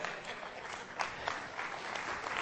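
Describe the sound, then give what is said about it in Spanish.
A crowd claps steadily for a couple of seconds, a dense patter of many hands with a few sharper individual claps standing out, no voices over it. “Un aplauso.”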